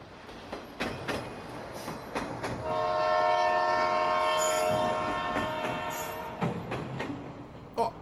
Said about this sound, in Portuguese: Esse som aí te lembra alguma coisa? Hã? Hã? Já ouvimos muito aqui nessa série, né? É o sinal do trem, da mobilidade, que vai alterar os negócios de Itapeva e do Sudoeste Paulista.